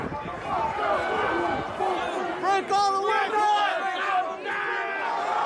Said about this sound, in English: That was the sound of the January 6th attack on the Capitol that left five people dead, including a Capitol police officer.